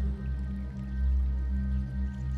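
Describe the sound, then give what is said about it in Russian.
River water flows steadily, a continuous low, rumbling murmur that stays even throughout, with no voices and only faint trickling detail above the deep rush. “У вас есть две минуты, чтобы побыть у реки, посидеть, побродить или поплавать.”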